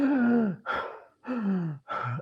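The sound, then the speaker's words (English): Heavy breathing: a person demonstrating chest breathing takes two loud, rushing breaths, each paired with a voiced, sighing exhale, in a quick alternating rhythm with no speech. “you expand your chest, for example, there are kids that breathe here like a panting.”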